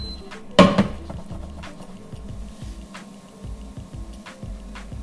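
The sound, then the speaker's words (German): One or two small tablespoons of sugar are stirred in and tossed in a pan, with a sharp metallic clatter early on, then a steady rhythmic scraping and shuffling of the pan, with no talking. “Einfach weil das noch so einen geilen ja, Karamell-Crunch gibt und den einfach direkt unter rühren bzw. schwenken hier.”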